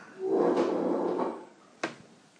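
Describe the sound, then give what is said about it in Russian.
Wooden chairs creak and scrape under children for about a second, then a single sharp knock follows after a short pause, with no voices. “Пожалуйста, не надо скрипеть стульями, дети, ну, пожалуйста.”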